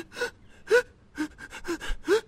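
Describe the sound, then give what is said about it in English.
A voice imitates sobbing hyperventilation, as in crying hard while sucking in air: five or six sharp, breathy gasps in a quick, uneven rhythm, fairly loud, with no words spoken. “Like you're you're also hyperventilating. You're crying, but you're also like sucking in air.”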